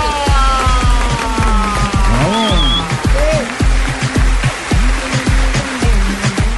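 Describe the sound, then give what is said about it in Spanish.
Loud, sustained applause from a crowd welcoming a guest, a dense wash of clapping that fills the whole stretch, with cheers and a few whistles rising over it. “recibamos con un fuerte aplauso al señor Oscar Iván Zuluaga”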